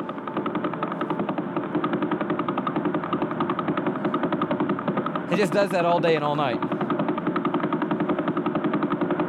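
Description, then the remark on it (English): Radio signal pulses from the Vela Pulsar, picked up with a radio telescope, form a rapid, steady train of buzzy clicks that repeat without a break for the whole stretch. A man briefly speaks over them partway through. “we aimed a radio telescope at the Vela Pulsar”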